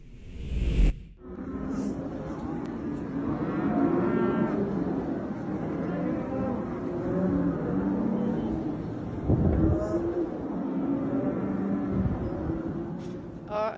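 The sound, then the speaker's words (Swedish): Many distressed cows bellow and moo continuously in overlapping, strained calls for help, loud, forming a dense agitated chorus with a brief sharp thud near the start and a steady low rumble beneath; filmed during a tragic incident. “en person då som fick den här händelsen på film där man kan höra hur korna verkligen ropar på hjälp.”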